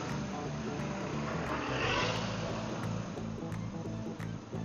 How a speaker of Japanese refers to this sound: お今のバイクのお兄さん、いいな僕も串谷のバイクウェア欲しいな